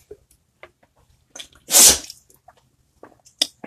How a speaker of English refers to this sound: That was my dog sneezing. If you just heard that.